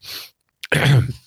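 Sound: cough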